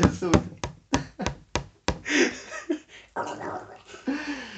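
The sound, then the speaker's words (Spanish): About seven sharp, evenly spaced knocks on a hard surface, imitating elderly women tapping their canes against the floor before a door opens, followed by people talking and laughing. “Golpean la suya contra el piso antes que abra la puerta del,”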